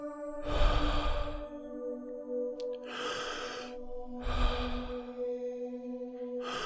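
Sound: deep inhale and exhale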